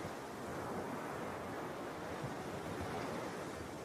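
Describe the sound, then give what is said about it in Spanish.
Steady rushing surf from ocean waves breaking on the shore of Golfo Star beach, by Avenida Primera at calles 18 and 19, a continuous broad wash of water with a faint wind rumble underneath, no voices present. “Aquí estamos de nuevo en nuestra cita con la vitrola reluciente y el mar, por supuesto, reluciente.”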